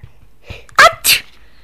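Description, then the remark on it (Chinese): A single big sneeze from a grandmother after a cut raw onion is put under her nose: a sharp, voiced first burst followed at once by a loud, hissing explosive release, then quiet. No talking. “果然，奶奶真的打了个大大的喷嚏。”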